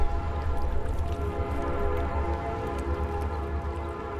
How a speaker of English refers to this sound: Its solid red brick buildings and graceful houses tell of an affluent past, as do the busy rail lines whose whistles sound in the arch homes many times daily.